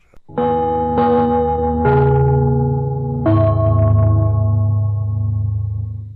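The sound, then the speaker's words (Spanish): A gong rings out in four loud strikes on Radio Portales in Chile, cueing the sports network of affiliated stations to connect, each ringing tone overlapping the last and sustaining into a long, slowly fading resonance. No voices are heard. “Al toque de gong, sírvanse conectar.”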